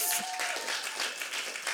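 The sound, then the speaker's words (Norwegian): A brief burst of audience applause for a woman, steady clapping from many hands blending into a dense crackle, moderately loud throughout the short moment. “Gi henne en applaus.”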